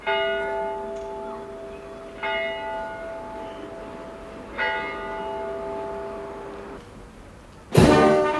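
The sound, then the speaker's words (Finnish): The bell of Turku Cathedral in Finland tolls slowly, each strike leaving a rich, humming ring that lingers before the next, ending with a sharper, louder clang. No voices are heard. “siellä me sitten saadaan netin välityksellä Yleisradion välittämänä suoraan tunnelmat sieltä Brinkkalan talon parvekkeelta ja tuomiokirkon kellon kumahdukset kajahtelee siellä sitten kilvan roomalaisten kirkonkellojen kanssa.”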